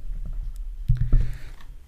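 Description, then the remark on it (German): A couple of muffled clicks and thumps as a microphone is handled and switched off, with faint rustling around them and no voices. “Also ich kann auch mal kurz drin blättern, dann muss ich das Mikro mal kurz abstellen.”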